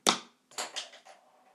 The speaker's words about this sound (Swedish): Om jag skulle tappa en penna nu. Okej, okay. jag tappar en penna nu.